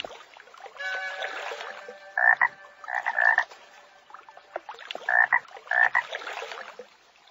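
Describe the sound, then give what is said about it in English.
A frog croaks in a pond: four loud, raspy calls in two quick pairs, over a steady buzzing chorus of other frogs in the background. “This frog lives in a pond.”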